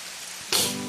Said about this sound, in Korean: 그런데 그때였어요. 갑자기 소나기가 쏟아지기 시작했죠. 어? 어, 비 온다! 할아버지, 비가 많이 와요!